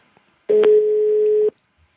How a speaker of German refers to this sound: Es klingelt. Ja. Es klingelt das Telefon.